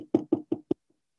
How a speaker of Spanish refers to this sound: A los 10 minutos le tocan la puerta al jajam.